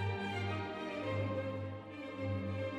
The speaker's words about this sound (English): Hands can do incredible things. This is the sound of 326 hands playing Mozart.